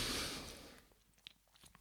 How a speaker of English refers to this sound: Oh, okay. Another sip of cider. Hmm.